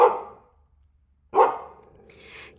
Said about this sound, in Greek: Και ο Μέγας Καραβόσκυλος, ο Τσούρμος, τρέχον και αυτός όσον του επέτρεπε η άκρα ένταση της αλήσεώς του, εγάβγιζε μανιωδώς προπέμπον το πλοίο, εφού εντός της ημέρας έμελε να μεταφερθεί